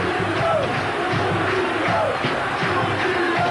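A huge stadium crowd of Vasco fans chants the name of Juninho in unison after his goal against Bahia, a loud rhythmic two-part call repeating roughly every second and a half, the mass of voices filling the space with a constant roar underneath.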